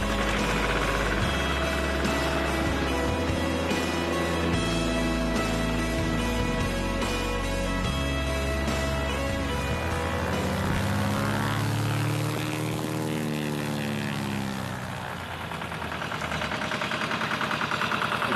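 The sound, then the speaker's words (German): A seaplane's propeller engine drones loudly and steadily, rich in buzzing harmonics, then its pitch bends and shifts as the engine note changes before settling into a steady roar again. No one speaks. “Heute geht's in der Freizeit um den Traum vom Fliegen eines Wasserflugzeugs.”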